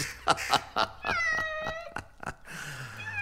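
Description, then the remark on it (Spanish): A cat meows insistently, a run of sharp, demanding cries with rising and falling tones, repeated several times in quick succession with no talking. “¿Qué gato más impaciente?”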